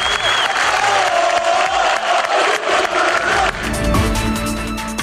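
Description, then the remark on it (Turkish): A loud crowd in a hall chants and cheers continuously as Yıldırım leaves after being elected Fenerbahçe president for the 11th time, voices merging into a roaring, echoing din with shouts rising above it, filling the whole stretch without pause. “11. kez Fenerbahçe başkanlığına seçilen Yıldırım salondan tezahüratlar arasında ayrıldı.”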